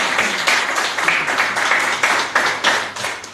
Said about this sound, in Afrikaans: Jy kan ons weer 'n laaste hande klap kry vir die mengelbeeskrywer.